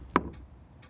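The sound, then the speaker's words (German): Knocking a wrong pattern on a door with a knock-activated lock: one sharp rap followed by two softer knocks spaced irregularly, with no voices present. “ich auch mal was Falsches klopfen”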